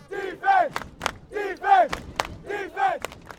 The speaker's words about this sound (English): We figured football, right? What a great place to meet people right where they're at, hanging out on a Friday night or Saturday afternoon, eating hot dogs, cheering on their kids.